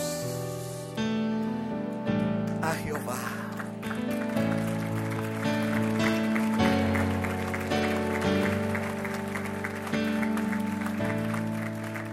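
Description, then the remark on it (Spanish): An audience applauds loudly and steadily for about twelve seconds while sustained keyboard or organ chords play underneath, the clapping forming a dense, even wash over the music. “Y con ese aplauso el versículo 16 se cumple porque dice, el pueblo respondió y dijo, nunca tal acontezca que dejemos a Jehová para servir a otros dioses.”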